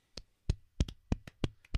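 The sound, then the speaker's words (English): A slow, light, sarcastic golf clap: about nine soft handclaps at an unhurried, slightly uneven pace, some landing in quick pairs, with no talking. “i gotta hand it to them they've done a pretty fucking shitty job so i'm gonna give them a shitty golf clap applause”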